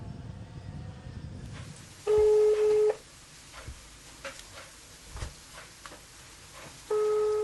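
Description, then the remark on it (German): Telephone call tones of a girl calling her father, a truck driver working abroad, reached in Spain: a steady, loud electronic beep lasting under a second, then a second identical tone near the end that is cut off, over faint rustling and scattered soft clicks. “Sie hofft jeden Morgen auf ein kurzes Gespräch mit Papa.”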